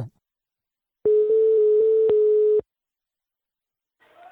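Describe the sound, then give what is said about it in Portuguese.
A steady telephone dial tone hums for about a second and a half as a call is placed, broken by a few faint line clicks, then cuts off abruptly into silence. No one speaks. “Eu mesmo não vou ligar mais de novo, não. Liga, liga, liga, liga, liga. Escuta isso.”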